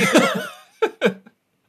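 cough

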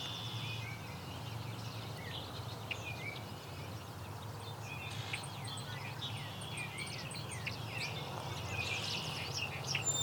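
song sparrow singing

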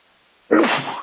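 sneeze

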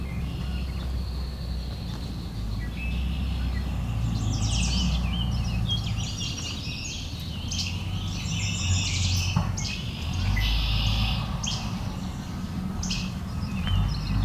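red-winged blackbirds calling

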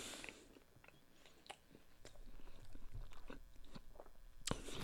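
chewing food

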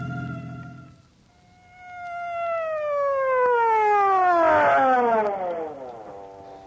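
emergency vehicle siren wailing

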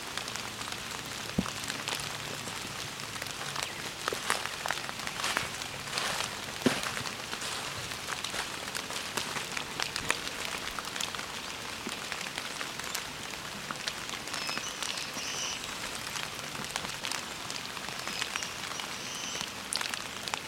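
rain falling

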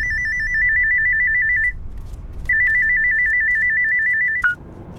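phone ringtone

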